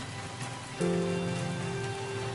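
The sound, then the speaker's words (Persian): Steady, fine light rain patters across a surface in a continuous hiss, with no voices. Partway through, a low, steady mechanical hum joins in beneath the rain and lasts to the end. “اون بارون ریز ریزاست که خیلی دوست دارم هر وقت اینجوری بارون میمد پدرم زنگ میزد”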